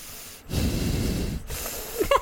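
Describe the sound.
A voice imitates the snoring of a man in a movie theater: two long, rough breathing sounds with a low rasp, each separated by a brief pause, followed by a short snorting catch at the end.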